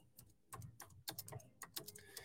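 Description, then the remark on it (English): Quiet keyboard typing of a message on Instagram: a quick run of soft clicks and taps in an uneven rhythm, with brief pauses between bursts of keystrokes and no voices. “I'm just typing this for”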